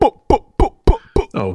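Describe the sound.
A voice imitates Jamaican-style gunshots (lick shots): five short, punchy vocal bursts fired off at an even, quick rhythm, loud, followed by a brief spoken interjection.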